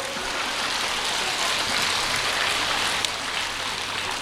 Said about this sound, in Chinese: 鼓掌。